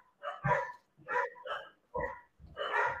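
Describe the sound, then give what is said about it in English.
A Labrador dog barks about five times in quick, uneven succession, the sharp barks fairly loud with brief gaps between them and no one speaking. “Um, what type of dog is it?”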